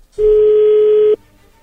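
A telephone tone as a call is placed: one steady, mid-pitched electronic hum holding for about a second, fairly loud and alone, then cutting off abruptly into quiet. No voices are heard.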